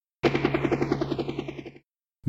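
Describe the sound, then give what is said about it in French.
A helicopter sound effect: fast, rhythmic rotor chopping, loud, with a whine that slides downward as if flying past, cutting off abruptly after about a second and a half. “Mais, quel est ce, ce bruit d'hélicoptère euh, incroyablement bien fait Il y a vraiment des effets spéciaux de malade dans ce podcast.”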